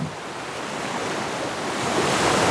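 Ocean waves of the Bay of Bengal, India, wash in a steady, broad roar of surf, swelling slightly louder toward the end, with no voices present.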